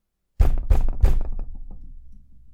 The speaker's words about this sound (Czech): A přesně o půlnoci, na čas jako hodinky, někdo zabouchal na dveře, aby ho pustili dovnitř.